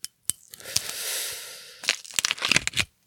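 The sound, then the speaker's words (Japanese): Gold foil cap seal being peeled and torn off the neck of a black, wine-bottle-like bottle: a sustained crinkling rip followed by several sharp crackling snaps, fairly loud, with no talking. “キャップシール剥がして、たら、あ、コルクじゃないんだよね。”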